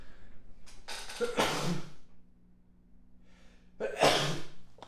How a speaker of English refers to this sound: I'm gonna sneeze.